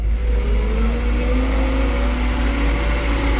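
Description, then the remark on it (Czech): A heavy excavator or tractor engine drones steadily, its low rumble constant with a faint rising whine as it works to tension a pumpkin-throwing catapult, no voices over it. “Lidské síly by na to pochopitelně nestačily, takže Výraznou pomocí jsou tady různé bagry a traktory.”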